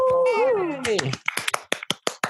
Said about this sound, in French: Je me suis auto-applaudi.